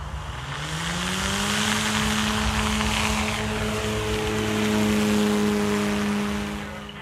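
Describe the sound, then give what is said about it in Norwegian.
A military surveillance drone getting up into the air: a steady engine drone with a sustained tonal whine that rises slightly at the start and then holds, loud and continuous for several seconds with no talking. “Men den kom seg da i hvert fall opp i lufta. Hør nå.”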